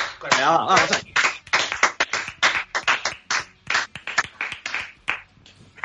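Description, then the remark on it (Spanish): A burst of applause from a small group in thanks to people called brave heroes, sharp claps coming thick and fast for several seconds, with a voice calling out briefly near the start. “Vamos a agradecer. Eso sí que, son los valientes. eso sí que son héroes. Hombre, joder. Un gran aplauso.”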